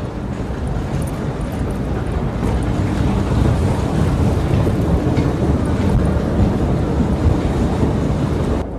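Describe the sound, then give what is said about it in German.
A loud, steady roar of a subway train at an underground subway platform, deep rumbling with a constant rushing hiss that stays unbroken throughout, with no voices. “So Leute, ich bin jetzt beim U-Bahn-Gleis angekommen.”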